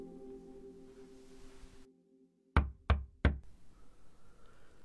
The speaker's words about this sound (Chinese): 正在我苦思冥想的时候，响起了敲门声。